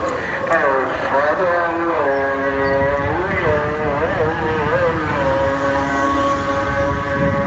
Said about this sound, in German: Hier rollt einer gerade einen riesen LKW-Ratz über die Straße. Tuk-Tuks kommen mir entgegen.